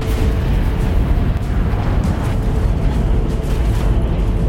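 A deep, continuous roar of a NASA Saturn V rocket launch as the rocket lifts off slowly, then quickly gains speed; loud and steady, with heavy low-end rumble and crackling texture throughout, no breaks or voices.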